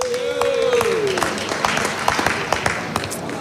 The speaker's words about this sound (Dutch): Oké, Mag ik ook een hartelijk applaus voor de samenwerkende ondernemersvereniging Sint-Antonis?